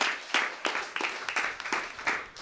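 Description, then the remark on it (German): Audience applause: a steady wash of many hands clapping, with a few sharper individual claps standing out in an uneven rhythm, fairly soft overall and with no voices. “Äh, können wir nochmal kurz einen Applaus kriegen für diese Frage?”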